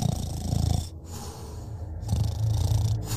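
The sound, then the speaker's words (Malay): Heavy, rumbling snores from a father in two long drawn-out breaths, loud, with a rough low-pitched rattle and a brief pause between them. No one speaks. “dengkuran ayah yang macam kapal pecah Bunyi senyap Bila tiba-tiba bunyi Dengkuran si ayah ni Memang kuat gila”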